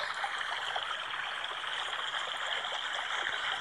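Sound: babbling stream water flowing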